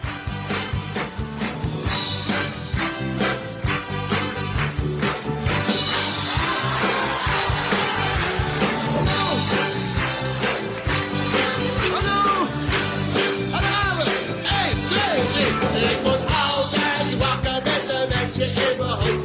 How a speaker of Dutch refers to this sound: nou, we gaan, we gaan even luisteren naar het intro, dan weet je waarschijnlijk meteen al waar het over gaat.